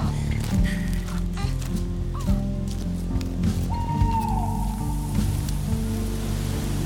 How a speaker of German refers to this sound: Hörst du die Käuzchen rufen?